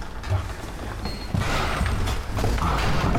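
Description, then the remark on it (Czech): An old carved wooden door decorated with carved portraits, in a Baroque style, is opened. Its original medieval lock clunks and its hinges creak with a scraping, groaning noise that swells over a few seconds. “Já to zkusím otevřít.”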